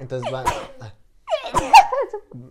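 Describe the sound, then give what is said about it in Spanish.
A person is talking when a sharp sneeze bursts out, preceded by a quick vocal intake and followed by a brief voiced trailing sound, with a shorter burst earlier in the speech. “Salud. Gracias.”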